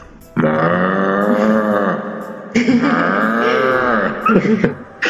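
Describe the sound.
A person imitates a bull's bellow with two long, loud, deep groaning roars, the first lasting about two seconds and the second rougher and breaking up at the end.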